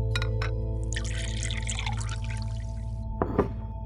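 Water pours steadily into a drinking glass for about three seconds, a bright splashy rush, ending with a couple of small clinks over a low constant hum; a glass of water being given to someone to drink.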